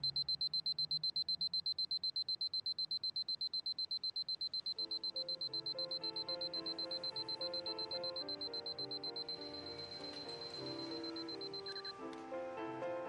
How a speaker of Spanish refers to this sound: Suena el despertador.